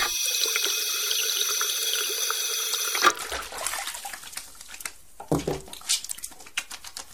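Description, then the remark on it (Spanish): Water runs steadily from a tap for about three seconds, then gives way to irregular splashing and rubbing sounds as hands move under the stream, with no one speaking. “Por eso dice Daniel Pagua, en la facultad se pone tanto énfasis en enseñar muy bien las técnicas para el lavado de manos quirúrgico y el lavado de manos común.”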